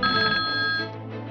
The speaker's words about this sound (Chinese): 突然，不远处的电话铃声响起